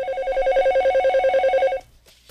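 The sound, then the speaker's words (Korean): A telephone rings with a fast, warbling electronic trill, loud, for nearly two seconds before cutting off abruptly into quiet, as a call is placed to a private academy. No one speaks. “저는 고민 끝에 학원에 전화를 걸었습니다.”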